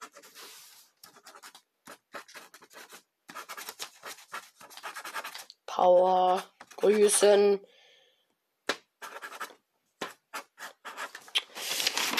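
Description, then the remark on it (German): Quick scratchy strokes of a pen or pencil on a slip of paper as someone writes a calendar note, coming in short bursts and pauses, with a person speaking briefly in between. “So, ich werde mir jetzt einen Kalender erstellen.”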